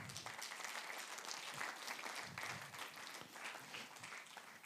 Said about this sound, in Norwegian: Skal vi klappe, og skal vi gi Gud ære for det?